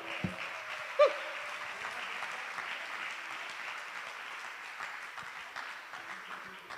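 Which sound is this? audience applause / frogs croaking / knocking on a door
audience applause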